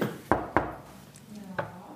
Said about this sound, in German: Sie klopfen mal, mal gucken, ob wir rein dürfen. Mal gucken.